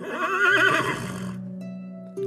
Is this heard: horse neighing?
yes